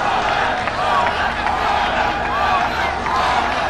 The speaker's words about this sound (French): Oui, c'est François Hollande que ces maliens acclament. Et le voilà, le voilà, Il salue la foule, il serre des mains.